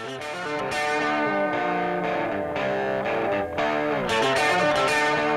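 A loud, distorted electric guitar riff played over a full rock band, bright harmonic lines climbing and bending in quick repeated phrases with no voices.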